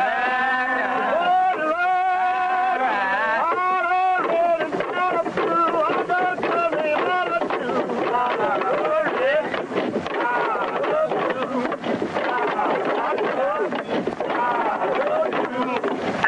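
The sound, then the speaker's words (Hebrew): Steady, rhythmic tapping of rail-lining bars, used by American railroad track layers (gandy dancers) to move and align the rails, repeats throughout, sharp metallic knocks keeping time beneath men's voices singing together over a constant hiss; a 1929 recording made during railroad work in Columbia, South Carolina. “הנקישות הקצביות שאת שומעת זה, זה המוטות שבעזרתם הם מזיזים את ה... מיישרים את המסילות וכי הם חייבים לעבוד בסנכרון מושלם, אחרת הם לא יכולים להרים ולהזיז את מסילת הברזל, והסנכרון הזה מתאפשר בזכות השירה.”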